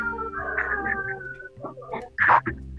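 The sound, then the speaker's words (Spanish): Someone crying in drawn-out, wavering wails that rise and fall in pitch, building to a louder, sharper cry near the end, with no talking over it. “Escucho escucha que están llorando.”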